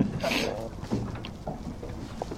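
A fishing boat rocks on the water as a fisherman pulls a line of scallops to its side, with steady sloshing and splashing against the hull, a low rumble underneath, and a few soft knocks. No one speaks.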